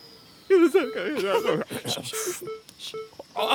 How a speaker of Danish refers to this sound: Okay, den ringer nu, den ringer nu, den ringer nu.